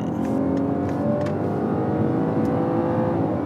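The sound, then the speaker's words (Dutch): A new BMW 5 Series car engine accelerating during a test drive, a loud, steady droning hum with layered harmonic tones that holds throughout, with no voices. “Ja, BMW heeft een nieuwe 5-serie”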